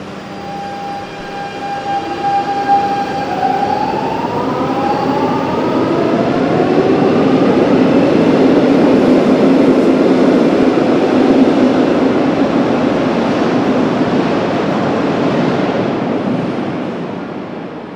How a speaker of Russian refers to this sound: Мы находимся в городе Медлинг, в 20 километрах от Вены, даже меньше. На вокзале, поэтому сейчас будет немножко шум прибывающих поездов.